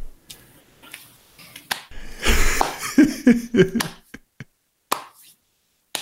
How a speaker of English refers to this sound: It's what you want on a podcast is someone clapping, right?